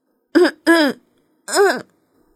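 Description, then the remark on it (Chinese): A forceful throat clearing in three loud, voiced bursts: two quick rasping ones close together, then a brief pause and a longer, rising-and-falling final "ahem", as a story character clears his throat before singing. “就这样，站在美丽的月光下，他使劲儿地清了清嗓子，然后张开双臂。”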